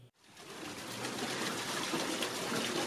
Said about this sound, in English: Water from a nearby creek drops from a perched sluiceway onto a water wheel made of scrap wood.